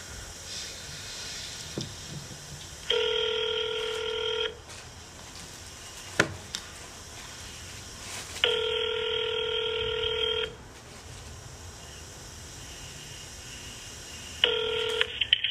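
A telephone call to a mayor's office ringing out: three long, steady, buzzy ring tones, each lasting about two seconds and separated by quiet gaps of line hiss, with a sharp click in between. No voices.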